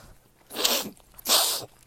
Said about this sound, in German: Oh, ich muss niesen. Oh.